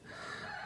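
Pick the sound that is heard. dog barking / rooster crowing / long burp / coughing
rooster crowing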